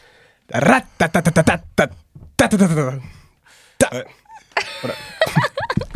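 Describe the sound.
A voice beatboxes a drum break: rapid rhythmic clicks, pops and hummed bursts imitating kicks and snares, with short pauses between phrases.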